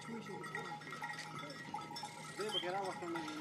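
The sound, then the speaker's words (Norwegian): A herd of goats bleats in overlapping, wavering cries, several animals calling at once, as Afghan soldiers patrol house to house in a village in Afghanistan, with faint bell-like clinks and a person talking in the background. “Fulgt av en flokk geiter er det afghanerne som patruljerer fra hus til hus inne i landsbyen.”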